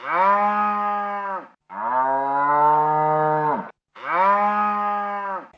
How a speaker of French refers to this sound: C'était le son d'une vache qui meugle. En effet, quand une vache fait, on dit qu'elle meugle.